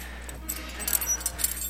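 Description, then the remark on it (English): Several different kinds of metal horse bits, which hook up to the reins, being handled, giving off a series of bright, clinking jingles with a few sharper clanks in the middle, fairly soft overall with no talking. “these are bits. And there's different kinds of bits.”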